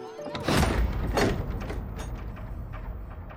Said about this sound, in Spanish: Tojo abre la puerta, lo hace pasar al turco, luego pasa él y cierra.